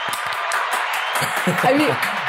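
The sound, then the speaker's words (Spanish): A burst of steady applause sound effect played from an operating system on a show set to welcome a guest, dense and continuous clapping throughout, with voices murmuring and talking underneath. “Aquí la gente ah, en, el set no escuchan, pero tengo un sistema operativo donde hay aplausos.”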